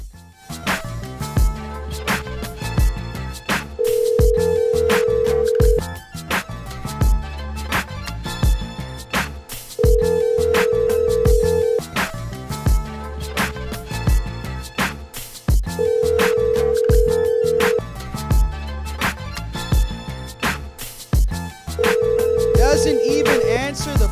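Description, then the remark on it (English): An outgoing phone call to the caller's mother ringing: four steady ringback tones, each about two seconds long and spaced evenly, sounding clearly over a continuous music bed with no one talking. “I'm gonna try calling my mom right now. We're gonna see if she answers her phone.”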